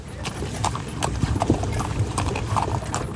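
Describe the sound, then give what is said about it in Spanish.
Steady clip-clop of a horse's hooves pulling a wooden cart on a paid ride toward Las Tecas camp near the Darién Gap at a hot midday, a brisk repeating rhythm of sharp knocks, with a low rumbling of wheels and faint murmur of voices underneath. “Nos engatusan para que paguemos un paseo en una carreta de madera, tirada por un caballo.”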